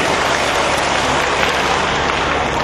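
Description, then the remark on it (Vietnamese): Sustained applause from an audience, a dense, steady wash of many hands clapping at once, loud and even throughout with no voices standing out. “và dành tràng pháo tay cho lời phát nguyện có ý nghĩa này”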